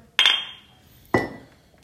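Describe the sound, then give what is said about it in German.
Two bright clinks of glasses touching in a toast, about a second apart, each leaving a short ringing tone that fades away. Fairly loud, with no voices. “Prost, ihr Lieben!”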